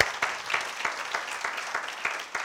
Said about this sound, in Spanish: A ver, aquellos que estemos agradecidos con la misericordia de Dios, hermano, démosle un aplauso de agradecimiento al Señor por su misericordia.